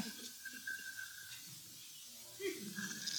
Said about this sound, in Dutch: Ja, je hoort hem dus ook heel zachtjes snurken.